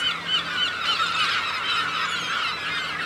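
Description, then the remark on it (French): A huge flock of seagulls squawking and crying all at once under a blue sky, dense overlapping calls filling the air continuously, fairly loud, with no voices. “Il y a énormément de mouettes.”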